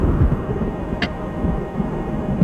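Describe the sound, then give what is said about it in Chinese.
A thunderclap: a deep, continuous rolling rumble with a single sharp crack partway through, fairly loud, with no voices. “一声炸雷让两个男人吓了一跳。”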